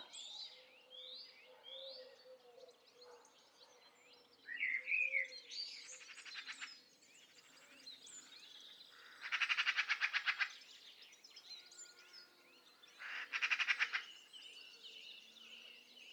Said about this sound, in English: Do you hear that call? What's that song? Who does that belong to? Magpies. Magpies. It's a magpie